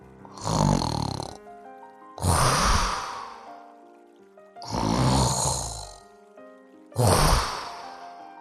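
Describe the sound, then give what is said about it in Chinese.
Deep, heavy snoring from a sleeping hippo: four loud, rumbling breaths at a slow, steady rhythm, each rising and fading, with soft sustained music playing underneath and no talking. “可是河马呀，只管睡他的觉，照旧打他的呼噜。”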